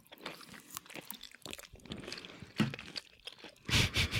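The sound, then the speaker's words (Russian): ASMR-style chewing of crunchy tangerine segments: a run of wet, crackling crunches and smacks in an irregular rhythm, growing louder toward the end, with no talking. “Подождите, дайте я тоже пожую на СМР.”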